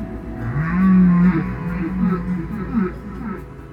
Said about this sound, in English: The baleen whales, when they sing, the big ones that are singing very intensely, those are very intense sounds. If you position your body near a baleen whale where they're making these sounds, your whole body would be vibrating.